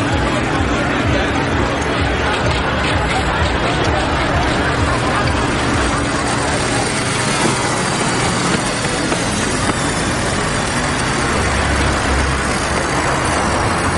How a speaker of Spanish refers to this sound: Atraviesa corriendo la zona llena de coches donde los jóvenes beben y se divierten.